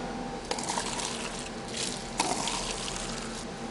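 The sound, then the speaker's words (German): Still mineral water, with its iron removed, pours steadily into a glass with a bright, splashing gush, starting with a sharp onset and swelling again midway, the stream fairly loud with no voices. “Wenn Sie mal das Glas behalten jetzt und wenn wir jetzt mal schauen, wie das Wasser dann schmeckt nach diesem Enteisenungsvorgang”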